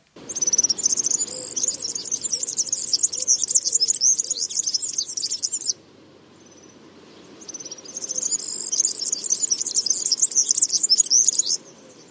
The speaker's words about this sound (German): Also das war der klingelnde und klirrende Gesang von einem Girlitzmännchen. Äh, ich vergleiche das immer ganz gern mit einem klingelnden Schlüsselbund. Ich finde, das kann man sich dann ganz gut merken. Und das ist wirklich ein einzigartiger Gesang